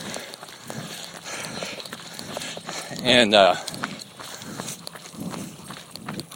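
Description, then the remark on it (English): Steady, rhythmic footfalls of someone jogging while holding a microphone thump along throughout, with a brief burst of speech in the middle. “I can't do that while jogging and holding a microphone.”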